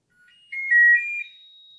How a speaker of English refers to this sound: we hear three beeps, sometimes four. and it's a little song.